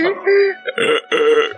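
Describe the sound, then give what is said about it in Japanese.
A voice imitates a demonic-sounding pigeon, mimicking the sound a girlfriend made after climax, in a low, guttural, menacing way: three throaty, croaking pulses, each strained and growly, the middle and last ones longest and loudest. “行った後、うん、悪魔みたいな鳩の声。”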